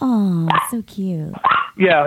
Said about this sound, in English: I hear the dogs are are, are barking in the oh, background. Oh, that's my that's my dog in the background.